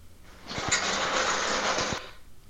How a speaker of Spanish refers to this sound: Órale, ya está lloviendo entonces allá en su rancho.